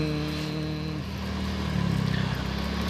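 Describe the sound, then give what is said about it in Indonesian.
A steady, muffled engine drone and low road rumble fill the inside of a moving car, with a slight shift in pitch midway and no one talking. “jadi kalau ada uh, rekaman di atas mobil biasanya pasti noise-nya udah bisa berkurang karena kan jendelanya ketutup kemudian ya Eh, suara-suara uh, di luar mo di, di luar mobil jadi bisa ketutup gitu”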